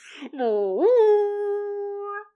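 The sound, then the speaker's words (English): A man's voice imitates a goat horn blast: a short low note swoops upward into one long, steady, buzzy tone that holds for about two seconds before cutting off, loud; heard in the distance from another part of a little town at 5 p.m., after dark, as Klaus begins. “Sounds like a man trying to imitate a goat horn”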